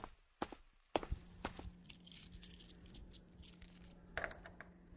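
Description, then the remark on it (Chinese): A steady series of crisp footsteps, roughly two per second, as Zhu Jie walks toward his home after parking, clicking sharply over a faint, constant low hum with no voices. “停好车子后，他深呼吸了几口气，调整了下自己的状态，这才迈步向家走去。”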